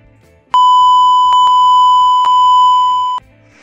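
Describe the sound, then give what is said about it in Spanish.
A loud, steady censor bleep: one continuous high-pitched tone holding for about two and a half seconds, broken only by a few small clicks, then cutting off abruptly over faint background murmur. “¿Le puedo, poner un, le, puedo un, pip a ese chiste”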